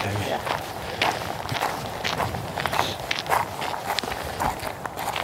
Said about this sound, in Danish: Og vi går simpelthen bare ude midt i det åbne, hvor, øh, hvor det blæser helt vildt. Øh, så nu sætter vi lige sætter vi lige det lange ben foran, så vi kan komme hen i læ.